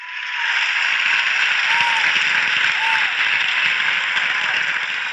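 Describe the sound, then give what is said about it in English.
Steady, sustained applause from an audience fills the space, a dense wash of many hands clapping at an even loudness for several seconds, with a faint whoop or two rising above it. “So I just want to say thank you and applaud your effort.”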